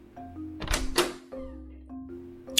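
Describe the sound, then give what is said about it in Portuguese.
A house's front door opens with a couple of quick, heavy clunks of the latch and frame, fairly loud, then settles into a quiet, steady low hum. “Eu andei através da construção e o sentimento de mal-estar apenas aumentou quando eu abri a porta da frente.”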